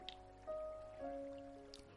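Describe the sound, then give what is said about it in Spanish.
A small stream trickles softly in the background with occasional light drips, quiet and continuous, accompanied by faint sustained tones. No one speaks. “Sigues caminando y más adelante te das cuenta de que hay un pequeño arroyo.”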